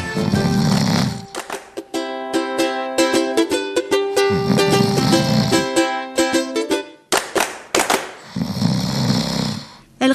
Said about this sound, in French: Dans le fauteuil à fleurs, l'ours ronflait, patte ballante, à moitié découvert.